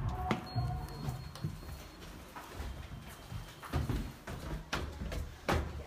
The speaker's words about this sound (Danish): Sparkede du døren ind